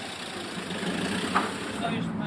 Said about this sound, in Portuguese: São mais, Ainda mais um? Pronto, agora para-se. Pronto. Estamos mesmo a ver os carros passar.